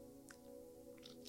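A quiet sip of coffee: faint, brief mouth and slurping sounds followed by a sharp little click, over a low steady hum, with no talking.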